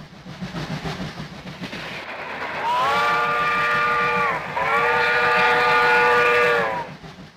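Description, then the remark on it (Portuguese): A train rumbles and clatters steadily as it gets moving, then a loud whistle sounds twice in long blasts, the second held longer, over the continuing rumble. “O barulho das engrenagens se fazia cada vez mais alto e era chegada a hora do trem embalar.”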